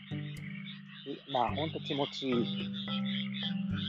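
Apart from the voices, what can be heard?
frogs croaking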